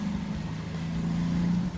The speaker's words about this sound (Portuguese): Óbvio que o Fusca ia ter que passar aqui na hora que eu tô gravando, né?